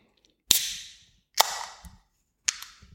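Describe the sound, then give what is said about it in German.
Beer bottles being opened: three sharp cap pops, each followed by a brief fading fizz, spaced about a second apart, with faint low thumps in between and no talking. “Ich eröffne das erste Bier der hundertsten Folge”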